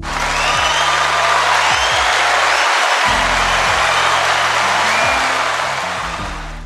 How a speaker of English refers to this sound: Round of applause.